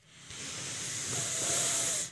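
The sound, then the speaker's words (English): One long, steady breath blown out hard as part of a breathing exercise, as if extinguishing a candle: a breathy hiss lasting about two seconds, swelling slightly before cutting off abruptly, with no talking. “Let's do the breathing exercise. Okay. What remember this? you used Smell to do the this. rose. okay, here we go. Blow out the candle.”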